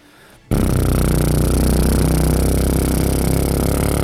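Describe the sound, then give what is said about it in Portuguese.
After a brief quiet moment, a small 50cc Shineray motorcycle engine starts up and runs steadily, a loud, buzzy, high-pitched drone that holds constant to the end. “Você vai ouvir o barulho da, da cinquentinha. Só o barulho da cinquentinha.”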